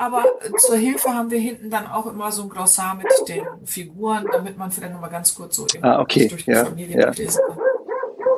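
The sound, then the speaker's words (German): The speakers' own dog barks a few times while two people keep talking over it, the barks short and partly buried under the conversation. “Ja, das ist unser Hund.”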